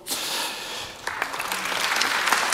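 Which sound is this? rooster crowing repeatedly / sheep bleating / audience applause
audience applause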